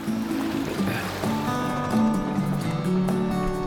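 A small fishing boat at sea chugs along with a steady engine drone, water washing and splashing beneath it throughout, no voices heard.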